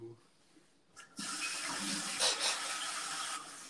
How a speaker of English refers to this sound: Sorry, I'm making myself some sparkling water. I know I shouldn't be doing this.